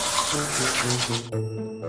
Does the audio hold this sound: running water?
yes